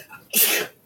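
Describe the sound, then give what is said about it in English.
A single sharp sneeze bursts out, a loud airy blast lasting under half a second before fading to quiet. “Bless you.”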